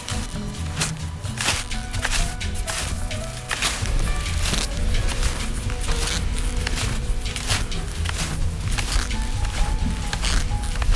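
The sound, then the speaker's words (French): Snowshoes crunch steadily through snow during a snowshoe descent, a quick, continuous rhythm of loud steps, each one a packed, scraping crunch, with no voices over them. “Du coup, c'est pour ça qu'on entend des bruits de pas là. C'est une descente en raquette.”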